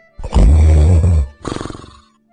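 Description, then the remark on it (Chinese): A heavy snore at night from a person lying beside the listener: a long, loud, rumbling rasp followed by a shorter fluttering breath that rattles in quick pulses before fading to silence. No one speaks. “音乐已经不放了，我迷糊着摘下耳机，就听到呼噜声一波未平，一波又起。”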